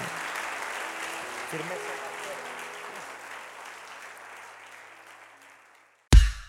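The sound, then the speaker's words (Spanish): An audience applauds Jesus, clapping steadily for several seconds, a dense wash of applause with faint low tones underneath early on, gradually thinning out before a sudden loud thump cuts in at the end. “Oh, vamos a aplaudarle con todo su corazón.”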